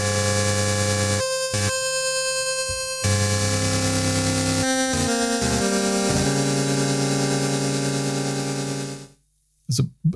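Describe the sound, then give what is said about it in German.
A loud, buzzy Roland FM synthesizer init sound with pulse width modulation drones steadily for about nine seconds, its harmonics shifting and pitch stepping a few times, then cuts off, followed by two brief bursts. “Du kannst eine Pulsweitenmodulation einstellen.”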